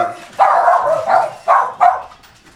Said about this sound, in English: So there's there they are. Yeah, that's so, the dogs. Um, there's the dogs. Welcome home.